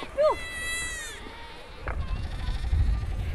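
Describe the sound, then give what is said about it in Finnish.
A young goat gives one loud, quavering bleat, followed by a shorter, fainter bleat amid rustling background noise, in cold weather. “Tuokaa joku se villapeitto tänne pienten vuohien suojaksi.”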